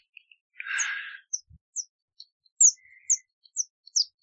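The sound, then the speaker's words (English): A person whistles a series of short, high bird-like chirps, about seven quick tweets after a breathy rush of air, imitating a small bird with no talking. “uh, I can make convincing bird chirps.”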